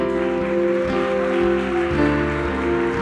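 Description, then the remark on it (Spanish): Steady applause from a crowd after a prayer, a dense rush of clapping that holds at an even level for the whole stretch, mixed with sustained keyboard chords that shift every second or so. “Dale un aplauso.”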